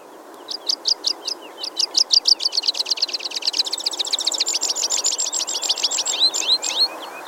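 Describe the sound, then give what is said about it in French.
A pipit, a small passerine bird, sings a long, accelerating series of sharp, high chirps that speed into a rapid trill, clear over a soft background hiss, with no voices. “Le chant que vous venez d'entendre est celui du pipi.”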